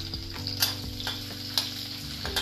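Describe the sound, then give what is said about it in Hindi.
Steady sizzling of square-cut onion, garlic and ginger frying in a hot pan, with a few louder crackling bursts and occasional stirring scrapes, no voices. “square में प्याज काट रखा था उसको डालूंगी लहसुन और अदरक भी साथ में डालूंगी”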